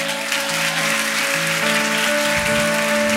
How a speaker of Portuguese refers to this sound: Pode aplaudir Jesus, irmão.